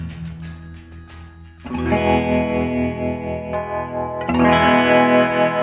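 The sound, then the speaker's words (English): An electric guitar played through a tremolo pedal effect and an Earthquaker Devices Ghost Echo pedal strums two sustained chords, the second louder, each ringing out with a steady pulsing tremolo that rhythmically wobbles the volume. It sounds fairly loud, with no one speaking. “Listen to that tremolo.”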